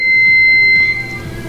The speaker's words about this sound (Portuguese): Desativaram a bomba. Você escutou um bip aí. Pensei, agora vai explodir de vez. Mas não. Desativaram a bomba.